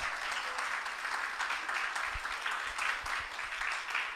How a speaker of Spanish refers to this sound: Aleluya. Apláudale a Cristo porque Él vive.